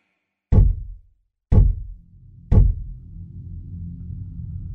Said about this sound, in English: The three knocks came from the other side of the door, from inside my apartment.